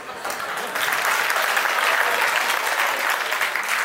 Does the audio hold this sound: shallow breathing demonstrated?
no